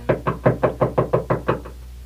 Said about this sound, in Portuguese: Eu já estava quase cochilando quando foi surpreendido por leves batidas na porta.